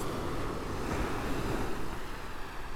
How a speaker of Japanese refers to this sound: わお波の音が